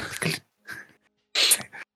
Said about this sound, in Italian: Io devo starnutire fortissimo, ma se lo posso fare fallo.